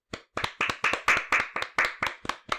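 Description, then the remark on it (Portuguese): A quick series of about ten sharp hand claps in a steady rhythm, crisp and fairly loud, with no voices, given as applause for the people who selected and delivered groceries. “Uma pra elas.”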